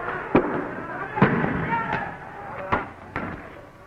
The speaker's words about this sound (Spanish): Los estudiantes lanzan botellas y bombas molotov y la policía contesta con disparos de bombas de gases lacrimógenos.